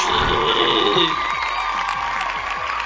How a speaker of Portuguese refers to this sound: Aê, salva de palmas